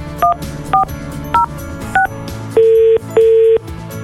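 Four quick, evenly spaced keypad beeps as a Radio Sinar radio host dials a listener's phone, followed by two longer steady ringing tones, clear with no talking.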